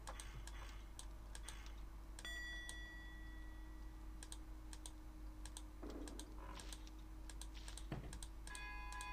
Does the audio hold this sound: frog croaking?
no